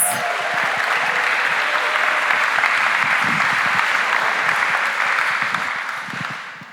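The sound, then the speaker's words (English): Steady audience applause for several seconds as two speakers come up to take their seats, a dense mass of many hands clapping, holding level before tapering off near the end. “So, would you have to give them a round of applause as they come up and take their seats?”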